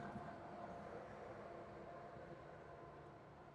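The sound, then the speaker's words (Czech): A train rolls past in Prague with a steady, continuous rumble and rattle of wheels on track, holding an even level for several seconds; nobody speaks. “A na to, že jsi říkal, že tady jezdí málo vlaků, tak už máme asi osmej.”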